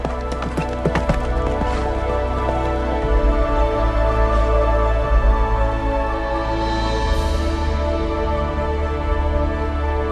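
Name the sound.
horse hooves clip-clopping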